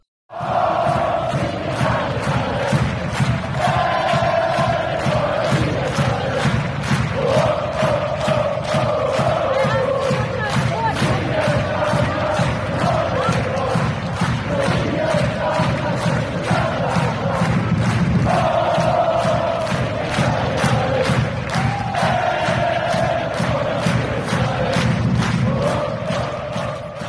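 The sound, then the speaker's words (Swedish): A loud crowd cheers and chants in unison, with steady rhythmic clapping or stomping driving a repeating sung phrase, sustained at full volume for about half a minute. “Ja, får jag en jubel?”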